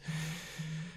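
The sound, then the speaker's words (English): A mobile phone vibrates in two even, droning buzzes, each about a third of a second long with a short gap between them, over a faint background hiss. “Yeah, I'm sorry that was my phone um, vibrating off.”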